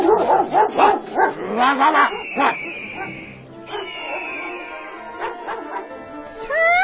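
A hunting dog barks in a quick, loud burst of repeated yaps, followed by a high, drawn-out whine and a few softer barks, with no talking over them.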